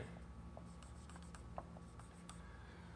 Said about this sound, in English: Uh, when you move to the uh, L sound, I'll um, draw that there. This is the Hebrew letter lamed.